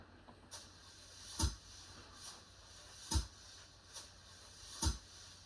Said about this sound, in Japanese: このシーケンスソフトの中に直接今音を入れてます。それも手動で並べるみたいな。例えばこれ、これね、たまたまジャズのブラシの音があったから、それ。